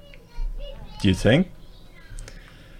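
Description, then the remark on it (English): Children playing around the speaker, who is in a small attachment at the back of a house: voices in the background, with one brief, fairly loud high-pitched burst of a child vocalizing, while an adult speaks briefly. “Uh, sorry if you can hear the kids playing in the background, guys.”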